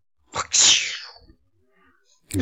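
A person vocally imitates a whip crack as a sound effect: one sharp, loud burst trailing into a hissing swish, followed by quiet and a short noise at the very end.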